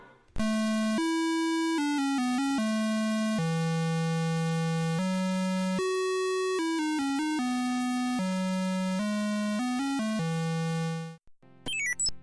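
Retro 1980s video game sound effects: a loud run of buzzy, square-wave beeps stepping between pitches, some held and some quick, ending in a brief garbled burst. No one speaks.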